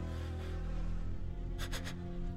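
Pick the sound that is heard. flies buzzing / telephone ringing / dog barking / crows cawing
flies buzzing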